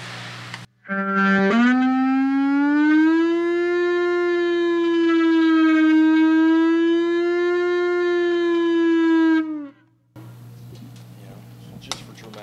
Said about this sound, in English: Does it work like a slide or a capo or? It's just a drone, you know, and, uh, and if you use it with a slide, you can kind of get, it kind of sounds like a siren.